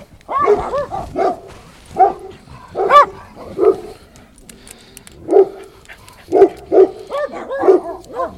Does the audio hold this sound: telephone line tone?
no